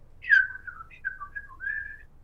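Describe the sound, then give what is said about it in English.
A person whistles an imitation of birds answering back: a bright, high whistle that slides downward, then several short chirping notes and a final sustained trill, heard alone without talking. “I was young enough to understand that my dad could uh, communicate with birds with, with the bow and the violin, and and the birds would answer him back like,”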